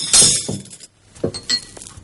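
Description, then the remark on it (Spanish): Wine glasses clink against each other several times as they're handled, a cluster of bright chimes, a short pause, then a few more scattered clinks. “¿Pero te he dicho que coges las copas?”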